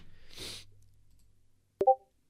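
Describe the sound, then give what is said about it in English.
A single short Discord notification ping from a computer, a quick bright two-note chime with a sharp click at its onset, sounds clearly near the end after a soft rush of background noise. “I am get pings and it's sound you can hear through through stream.”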